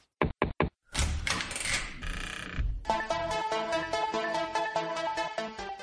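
Three quick, loud knocks on a door, evenly spaced, then a longer creaking, rustling sound before music starts and carries on to the end.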